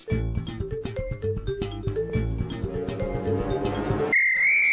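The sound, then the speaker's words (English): Laughter fills the first few seconds, then cuts to a short, loud, wavering high-pitched whistle, a voice mimicking the muffled squeal of a swallowed whistle. “Can you imagine swallowing a whistle? How would that sound?”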